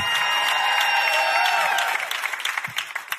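A church audience applauds and cheers loudly, giving praise to God while the preacher takes a water break, with dense, steady clapping and raised voices that thin out after a couple of seconds into scattered individual claps.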